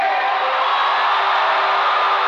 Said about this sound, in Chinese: 耶！给自己掌声鼓励鼓励！